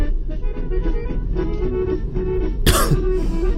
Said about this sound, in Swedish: Fan vad jag hostar.